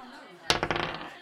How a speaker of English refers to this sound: Let's do your first dice roll